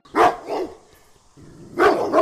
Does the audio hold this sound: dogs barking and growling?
yes